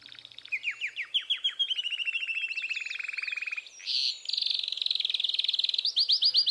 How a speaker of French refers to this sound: C'est le cas des Canaries. Durant la saison des amours, du mois de mars au mois de juin, le canari fait entendre son chant de troubadour, sa sérénade, composée à partir de 20 à 40 types de syllabes différentes.